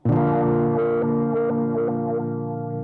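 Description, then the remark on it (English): Sustained, distorted electric guitar chords swell and sweep in tone through the wah effect of a Zoom G1X ON effects pedal, with a few rhythmic vocal-like surges. Loud, with no talking. “But when you use an effects pedal, I'm just going to use the wah to give it some sound here.”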